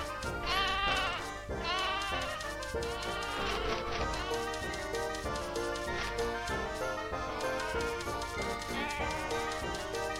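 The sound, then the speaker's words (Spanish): A flock of sheep in a sheep-counting game bleats loudly and continuously, many wavering, overlapping calls piling up, with no talking over them. “Bueno, yo conté 26 ovejas, vamos a ver qué pasa.”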